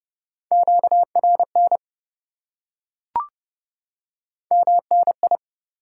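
Morse code beeps at 30 words per minute, at a single steady pitch, keyed quickly in dots and dashes. Two short bursts are separated by a pause, with a brief click in between.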